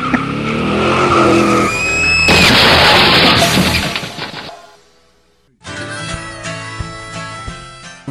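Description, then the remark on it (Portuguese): A racing car roars past with loud, screeching tires skidding, followed by a brief quieter moment and then more engine noise revving up again, all loud. “Saiu dali pra competir em corridas de carro no, no próximo, no próximo filme.”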